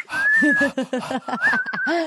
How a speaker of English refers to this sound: She's whistling.